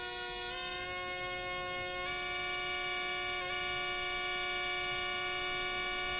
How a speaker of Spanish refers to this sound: Orestes comienza a tocar el aulos, un instrumento de madera formado por dos flautas tocadas al mismo tiempo.